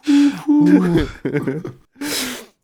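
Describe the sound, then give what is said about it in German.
A man's voice imitates an owl, with two sustained hooting tones followed by breathy, choppy vocal bursts and a final airy hoot, fairly loud, with no other sounds. “er wird kurz zur Eule.”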